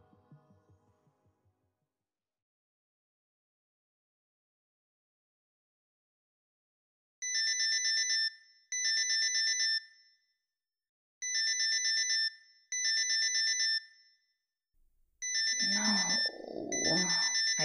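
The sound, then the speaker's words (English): A phone alarm rings with bright electronic tones in repeating pairs of bursts, loud, after a quiet start; near the end a low groaning voice sounds over the final ring as the person reaches over to stop the alarm after snoozing too many times. “groan as I reach over to my phone and stop the alarm.”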